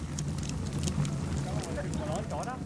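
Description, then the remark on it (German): A wood fire blazes in wood-fired bread ovens outside an alpine hut, crackling and roaring steadily, with sharp pops and a low rumbling draft, while faint chirps or voices drift in near the end. “In den Holzbacköfen vor der Alm lodert Feuer auf.”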